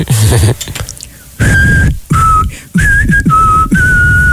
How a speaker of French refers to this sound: Il y a beaucoup de vent dans ton sifflement.